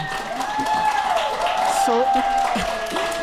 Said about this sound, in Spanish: si no van a decir que nos lo estamos inventando todo sus aplausos nos alimentan. Muchas gracias.